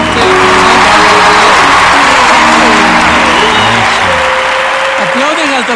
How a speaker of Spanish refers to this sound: ¡Aplausos!